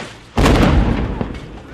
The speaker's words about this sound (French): Et vers 14h, le premier obus d'artillerie tombe.